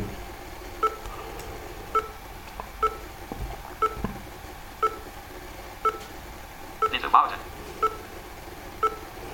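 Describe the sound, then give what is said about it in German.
Short, evenly spaced electronic signal beeps from the NVDA screen reader, showing it is working while the newest NVDA version is being set up, repeat about once a second, each a brief mid-high tone pair, with a slightly louder burst partway through, over a faint background hiss. “Ja, die Signaltöne kann man natürlich auch ausschalten, aber ich habe sie immer gerne an, weil dadurch höre ich dann immer, dass NVDA was tut.”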